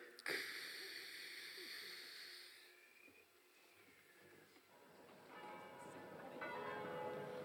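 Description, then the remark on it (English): Several city bells in downtown Vancouver, Washington, heard from the roof of the Smith Tower, ring out loudly together with a sharp strike to warn people to evacuate as the Martians approach, their bright metallic tones sustaining and clashing, then fading before a fresh round of ringing swells back up. “The bells you hear are ringing to warn the people to evacuate the city as the Martians approach.”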